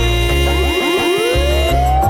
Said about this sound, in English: you hear it? The cops is coming to get ya, get ya, get ya. Siren, it coming.